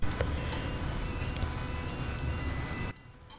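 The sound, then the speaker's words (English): An electronic phone ringtone for an incoming call chimes steadily over a loud, noisy background for about three seconds, then stops abruptly as the call is missed, leaving a quieter hush. Nobody speaks. “oh wait, we have oh. a call in.”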